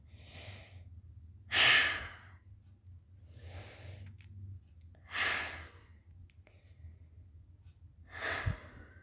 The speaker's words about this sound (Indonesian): bentar ya kita tarik nafas tiga kali sambil peluk diri sendiri kayak di drama It's Okay Not To Be Okay itu